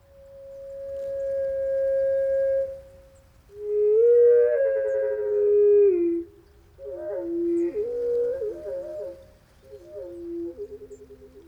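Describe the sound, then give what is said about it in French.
A bird sings pure, whistled tones in which two distinct notes sound at once, each with its own harmonics, produced by its syrinx, sliding and warbling together in a series of phrases, clear with no talking. “est possible de réaliser que l'oiseau est tout à fait capable d'émettre deux sons différents en même temps, deux notes fondamentales, coiffées de leurs harmoniques respectives, si bien qu'on jurerait entendre parfois deux chanteurs au lieu d'un seul.”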